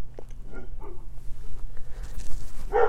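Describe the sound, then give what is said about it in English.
A dog barks a few times in short, muffled bursts over a steady low background hum, with a sharper bark near the end. “Sorry, it's my dog.”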